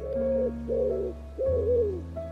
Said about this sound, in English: Only the wood pigeons bubbling with content